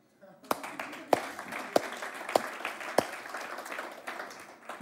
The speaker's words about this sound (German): Ganz wichtig, man könnte jetzt liturgisch klatschen.